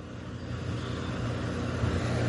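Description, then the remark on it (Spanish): Steady roadway traffic on the coast of Jalisco, Mexico, rumbles continuously, with a low engine drone that slowly builds as vehicles pass at differing speeds; no voices, just the broad wash of motorcycles, trailers, and small, medium and large cars. “Pasan motocicletas, trailers, carros pequeños, medianos, grandes.”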